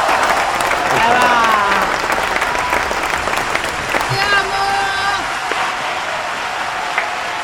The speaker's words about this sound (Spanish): queremos tener aplauso. ¿Podés poner aplauso? Te lo pido, por favor. Dale.